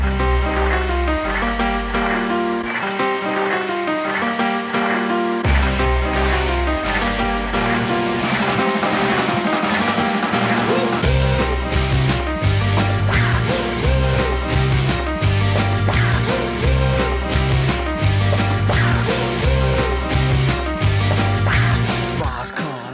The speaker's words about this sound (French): Et voici un extrait d'un des singles du groupe, qui est aussi la musique de la marque de cosmétiques Garnier.